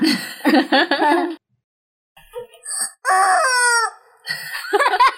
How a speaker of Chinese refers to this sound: 那尖叫鸡怎么叫？ 我现在就就去拿来叫一下。